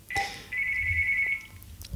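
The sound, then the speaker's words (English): A phone rings with a bright electronic tone: a short chirp, then a steady sustained ring lasting about a second. No one speaks. “Had to take a phone call.”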